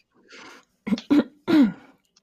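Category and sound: human body sound, throat clearing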